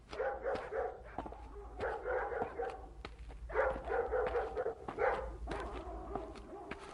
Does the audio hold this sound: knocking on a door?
no